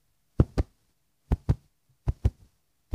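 A bird's heartbeat thumps in steady lub-dub pairs, three full double beats and the start of a fourth, clear with nothing else around it.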